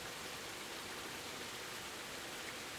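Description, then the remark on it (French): Steady, even rain hisses continuously outside an open window, a dense wash of fine droplets with no individual drops standing out and no voices present. “Alors je l'accepte et j'ouvre la fenêtre et j'écoute avec toi la magnifique chanson de la pluie et puis la magnifique chanson de l'orage aussi.”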